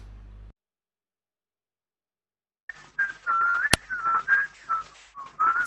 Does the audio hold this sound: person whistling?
yes